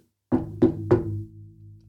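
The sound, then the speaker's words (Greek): Three firm knocks on a door in quick succession, fairly loud, each one ringing briefly before fading into a low resonant hum. “χτυπάει η πόρτα.”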